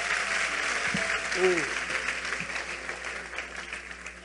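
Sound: audience applauding loudly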